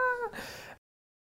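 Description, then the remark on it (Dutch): A single short, fairly loud cat meow, starting with a clear tonal cry that slides downward and trails off into a breathy end, with no other sounds around it. “wil ook graag wat zeggen.”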